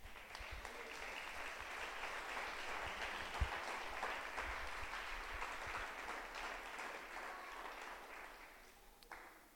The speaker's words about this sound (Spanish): Dan un fuerte aplauso al Señor.